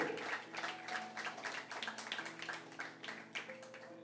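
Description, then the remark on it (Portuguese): An audience applauds the Lord Jesus in a steady, dense patter of many hands clapping, continuing over sustained keyboard or organ tones playing underneath throughout. “E a maldição que pode estar tendo ação na sua vida, hoje ela vai ser quebrada, diga eu recebo, e dê um aplauso ao Senhor Jesus. Mais forte esse aplauso ao Senhor.”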